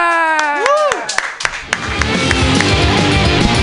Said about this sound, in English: Your next comedian. I believe he came all the way from Santa Rosa as well. Everybody clap your hands wildly